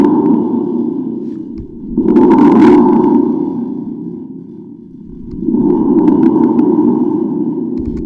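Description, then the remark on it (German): A homemade thunder effect from a tube instrument gives a deep, booming rumble that swells loudly twice, with a metallic, echoing ring, fading slightly in between. No one speaks. “Also wenn man das noch ein bisschen nachbearbeitet, glaube ich, würde das durchaus als Donner durchgehen.”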